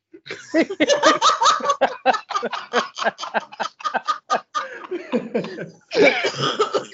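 A person coughs in a long, rapid series of loud, breathy bursts, almost laugh-like, pausing briefly before a final heavier fit of coughing.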